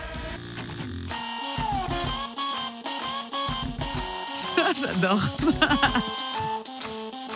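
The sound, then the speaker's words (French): A tune played on household appliances such as a clothes iron, an electric toothbrush and a bank card machine, with buzzing, whirring motor tones stepping through a melody at a steady pace. A person laughs and speaks briefly over the music. “Eh bien, figure-toi qu'il a été rejoué il y a quelques années par des ustensiles du quotidien grippin, fer à repasser, brosse à dents électrique ou encore machine à carte bleue.”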